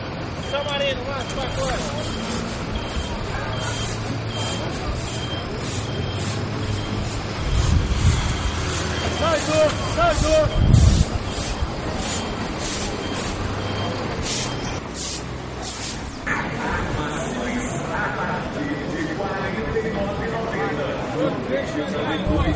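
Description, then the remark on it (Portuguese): Busy city street noise: a steady wash of traffic with trucks rumbling past, a hissing air brake and a louder low surge midway, plus faint indistinct voices mixed in. “eu já entendo como uma coisa natural, eu acho que faz parte da, da cidade essa agitação, esse barulho, essa paisagem sonora.”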